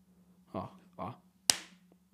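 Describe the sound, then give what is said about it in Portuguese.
A single loud thump as a fist accidentally strikes the microphone, with a sharp crack that quickly fades. Two brief vocal sounds come just before it, over a steady low hum. “Opa, acho que vocês vão ouvir um barulho aqui de um soco sem querer no microfone.”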